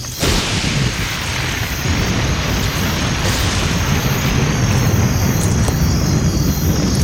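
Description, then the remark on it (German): A long, deep roll of thunder rumbles steadily and loudly for several seconds during a storm with lightning, heavy in the low end, with no voices present. “Keine Ahnung, aber es blitzt. Und donnert.”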